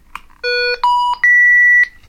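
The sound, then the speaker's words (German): An electronic obstacle detector for blind users switches on with a click followed by three rising electronic beeps, each higher in pitch than the last, the final tone held longest; fairly loud, no talking. “Dieser Stecker führt zu einem Vibrokissen, das man im Kragen oder auf der Brust oder am Hals trägt und das bei Kontakt mit einem Hindernis ein vibrierendes Geräusch von sich gibt. Ich schalte jetzt mal das Gerät ein”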